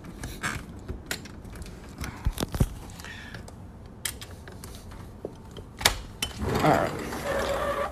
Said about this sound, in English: Just give me a second, okay? I'm trying to open this door.